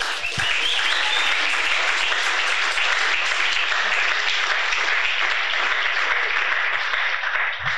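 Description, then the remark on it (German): Sustained, loud crowd applause, a dense wash of many hands clapping continuously for several seconds without pause, with no voices standing out above it. “Also für alle, die heute Morgen dabei waren, richtig fetten Applaus mal”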